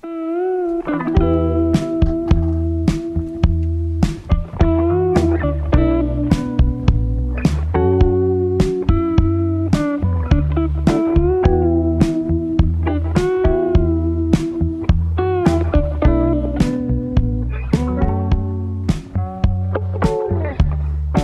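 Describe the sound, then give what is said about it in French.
A soft ballad with a female voice singing a flowing melody over steady bass and evenly spaced plucked or percussive accents, played clearly and at a moderate, even volume throughout. “J'aime ça, elle me chante des petites balades, là.”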